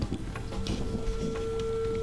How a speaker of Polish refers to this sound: Może ja to spróbuję zdemonstrować, zobaczymy. To trochę czasu potrwa, zanim wybrzmi. Mamy sygnał wolny.